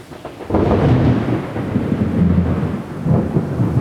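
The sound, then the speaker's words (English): Deep thunder rolls in after a brief quiet start, a loud, sustained low rumble that swells again near the end, with a faint hiss of rain beneath it. “Not many thunderstorms around here. Gonna be a gloomy day.”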